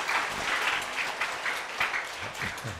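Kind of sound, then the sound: crowd, audience applause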